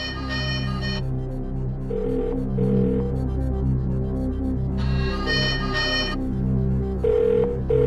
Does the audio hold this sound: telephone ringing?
yes